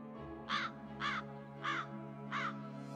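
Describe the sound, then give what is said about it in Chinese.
A bird outside the window calls four times in a steady, evenly spaced rhythm, each call a short, harsh, raspy caw, over a low constant hum with no one speaking. “窗外一声鸟叫声，”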